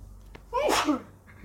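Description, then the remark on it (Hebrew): A single sharp, fairly loud sneeze bursts out, with a quick intake of breath just before it and a brief noisy release that fades away. “לבריאות.”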